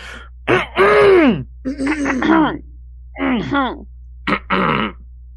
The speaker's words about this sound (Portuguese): Pô, um pigarreio 8 de 10, boa forma.